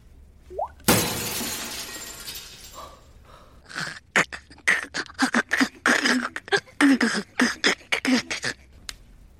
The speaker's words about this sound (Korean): 다만 이 말을 한 후에 유리 깨지는 소리가 들립니다.